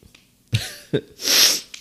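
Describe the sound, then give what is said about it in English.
A sniffle: two short nasal snorts followed by a longer, hissy inhale through the nose, fairly loud and with no talking. “oh, you made me sniffle.”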